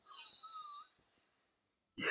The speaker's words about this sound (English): If there's any advice I can give to anyone that's listening, take a deep breath in